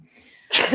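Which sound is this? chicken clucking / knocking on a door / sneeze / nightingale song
sneeze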